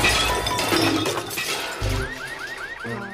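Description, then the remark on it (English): A loud, clattering crash of Wayne slamming into a garbage can and knocking it over, followed by a second thump and a quick series of short, rising squeaky chirps. “correct me if I'm wrong, but there's a sound of Wayne hitting a garbage garbage can, yeah.”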